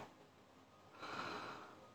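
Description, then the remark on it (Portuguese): A single deep breath drawn in through the nose during a guided breathing exercise to release anxiety, a soft airy rush that swells about halfway through and then eases off. It is fairly quiet, with no talking. “Vamos chegando e já respirando para liberar essa sensação de ansiedade, certo? Inspira”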